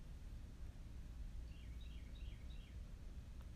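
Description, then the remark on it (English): Faint birdsong of a few short chirping phrases rising over a steady low rumble of outdoor background noise, with no talking. “As the good news birds are singing outside,”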